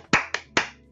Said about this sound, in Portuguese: E isso aqui, aí ele bate a palma.